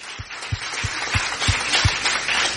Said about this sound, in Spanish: Dale un aplauso al Señor que está hablando a nuestro corazón en este día.